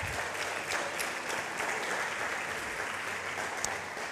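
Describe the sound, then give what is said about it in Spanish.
Steady, dense applause from a large group, given as a strong round of applause to God, fills the whole stretch: a continuous wash of many hands clapping at an even level with no voices standing out. “Y dale un fuerte aplauso a Dios.”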